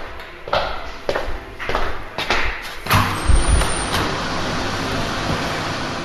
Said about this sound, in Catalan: Aquest és el so de la sala de màquines, dit una miqueta entre cometes, del que seria el cor del Servei Meteorològic de Catalunya. S'anomena CPD i és el Centre de Processament de Dades.